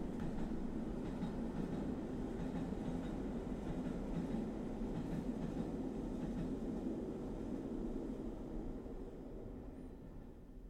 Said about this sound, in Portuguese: Olha o comboio!